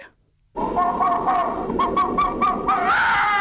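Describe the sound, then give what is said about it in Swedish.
After a brief silence, a red fox lets out a loud, wavering call, a harsh, strained, whining cry that holds for about three seconds with rough, crackly pulses. “Nu ska ni få höra hur en räv faktiskt låter.”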